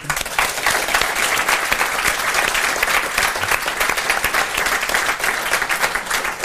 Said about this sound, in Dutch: Dus dank voor jullie. Mogen we wel even voor applaus? Ja.